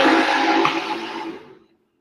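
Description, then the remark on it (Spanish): A motorcycle roars past, its broad, rushing engine noise loud at first, then steadily fading away to silence within about two seconds. No one speaks. “Ya pasó la moto.”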